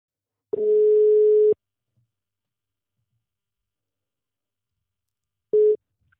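A telephone ringback tone while calling: a steady, clear one-second beep, then about four seconds of silence before the next beep starts and is cut short at the end.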